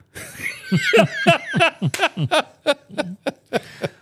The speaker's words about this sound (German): da muss ich sogar husten.